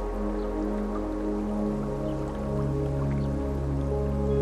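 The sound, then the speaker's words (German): Soft splashes and drips of water as a person leaning down from a bridge scoops stream water up with their hands, trickling quietly over a steady, humming musical drone. No one speaks. “beugst dich von der Brücke nach unten und fängst etwas Wasser mit deinen Händen auf.”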